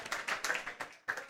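An audience claps in a brief, uneven burst of overlapping hand claps, bright and crackly, swelling and dipping for about a second and a half with no voices over it.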